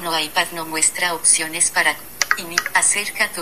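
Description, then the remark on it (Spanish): A phone is set down on a table with a couple of brief knocks and clacks against the hard surface, heard under a person talking steadily. “Este Entonces vamos a, a, poner esto aquí en el en la mesa.”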